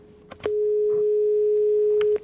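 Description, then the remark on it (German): A single steady ringback tone from an outgoing phone call to a local newspaper editor in Erkelenz, Germany, holding for nearly two seconds, clear and fairly loud, with small clicks and line noise before and after it. “Ich rufe jetzt jemanden an, der ganz nah dran ist und der geht auch direkt ans Telefon.”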